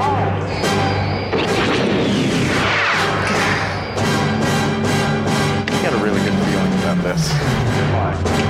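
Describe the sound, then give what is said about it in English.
A loud, dense barrage of explosion effects, blast after blast booming and crashing over a thick rumbling bed, with a descending whine near the end. “Now let's blow this thing.”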